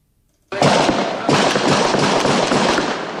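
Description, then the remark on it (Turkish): Dense, rapid bursts of sharp cracks and pops that start abruptly and continue without pause, like sustained gunfire, from an armed fight between three families with shots from four houses in the Gümüşçeşme neighbourhood of Balıkesir; loud throughout with no voices. “Dört farklı evden 40 dakika boyunca silah sesleri yükseldi.”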